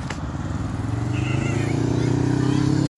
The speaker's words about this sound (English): A group of like ten people riding by in Spyders, and it was colorful and very very loud.